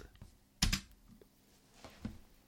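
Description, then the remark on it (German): A few computer keyboard keys are pressed while editing an audio file in Audacity, including the Home key to jump to the start of the file, with a sharp, louder clack near the start followed by softer, scattered taps, with no one talking. “Ich gehe mit der Home-Taste an die Datei anfangen und wir hören uns unser Werk einmal fertig an.”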